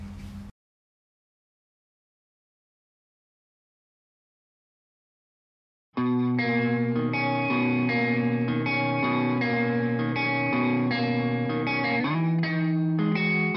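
After a brief blip and about five seconds of silence, an indie band song kicks in loud and full, with layered sustained chords and steady energy, shifting to a new chord near the end.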